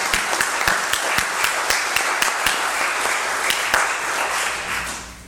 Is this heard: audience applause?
yes